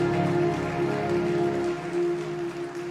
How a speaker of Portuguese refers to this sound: Você está feliz com Jesus? Então aplauda Jesus mais uma vez.